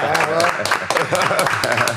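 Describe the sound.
A short burst of steady applause, many hands clapping in a dense, continuous patter at fairly high volume, with voices calling out and talking underneath.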